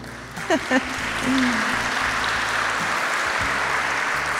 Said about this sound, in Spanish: Vamos a, darnos un aplauso.